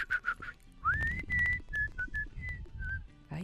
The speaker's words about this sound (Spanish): Tú sí chiflas bien. Sí, pues de silbar sí, sí sé.